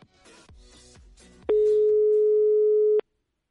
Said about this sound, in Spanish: Sí, a ver si nos coge el teléfono, porque es el oyente seleccionado que participa eh, todos los días o casi todos los días, hoy también.